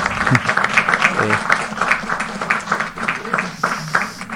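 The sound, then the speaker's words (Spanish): A burst of canned applause, played by mistake through a production technical error, a crowd clapping steadily and densely for a few seconds at a fairly loud level, with a murmur of voices mixed into the clapping. “Eh, mala mía, eso fue un error técnico aquí de producción. Eh, yo no quería aplaudir.”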